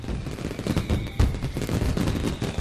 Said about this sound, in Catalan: I tornant a la costa, a Tarragona avui encenen fogueres. La ciutat festeja l'arribada de l'estiu amb música, coques dolces amb fruita confitada, moscatell i cava. I els petards no hi falten.